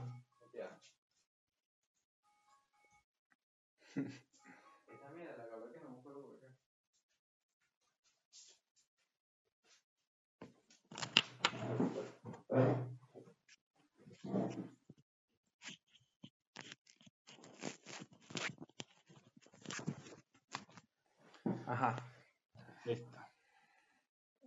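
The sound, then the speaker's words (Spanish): A phone alarm set for 7 in the evening rings with a short, warbling melodic tone at moderate volume, then gives way to scattered rustling and handling noises as it is switched off. “Son una alarma en el teléfono y la voy a apagar.”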